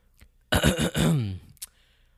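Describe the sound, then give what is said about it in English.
A single drawn-out throat clearing, fairly loud: a rough, raspy burst that rolls into a voiced, gravelly rumble and trails off, followed by a short breathy catch. “He has to clear his throat, man.”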